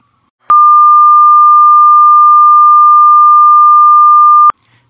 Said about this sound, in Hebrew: הדוגמה היותר גבוהה זה קול גבוה, מה שקוראים, זה אפשר לשמוע, זה מה שכל אחד, כל בן אדם יקרא קול גבוה, זה 1200 הרץ בערך, אז זה התדר.